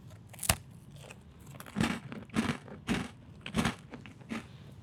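Crunching of a crisp cookie being bitten and chewed into a microphone, a sharp initial crack followed by several rhythmic crunchy chews, loud with no talking.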